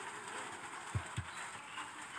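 A departing train rolls along under a steady, rushing hiss as rain grows heavier, with two quick low clunks from the wheels on the track close together midway through. No one speaks.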